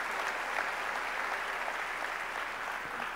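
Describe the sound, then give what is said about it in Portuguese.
Steady applause from an audience for Jesus, a dense continuous patter of many hands clapping at an even loudness throughout, with no voices standing out. “Uma salva de palmas para Jesus, glória a Deus.”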